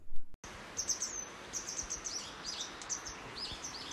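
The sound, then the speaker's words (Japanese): Repeated high, thin chirping calls of a wagtail, one of two there, a chick fallen into the garden by the kitchen, coming in short bursts with brief pauses over a steady outdoor background hiss. No one speaks. “今この今鳴き声聞こえますかねこれねこれね奇跡霊の鳴き声なんですけどそこに2羽いるんですよねでこれ実は多分巣から落ちたと思うんですけどあのこれひな鳥がこのちょうど台所周りのこの、まあ、庭というかところに落ちてしまって”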